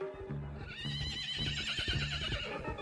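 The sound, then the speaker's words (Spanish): A horse whinnies loudly with a wavering, high-pitched neigh over a steady rhythm of galloping hooves pounding. “Nazario escuchó el galope de un caballo.”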